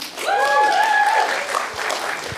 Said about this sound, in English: Round of applause